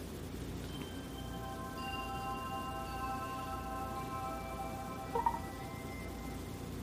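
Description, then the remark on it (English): A Kapsys mobile phone startup sound: soft, sustained synthesized tones layered into a gentle chord that swells and fades over several seconds, heard alone against a steady hiss, with a tiny click near the end. “But you will hear a different startup sound.”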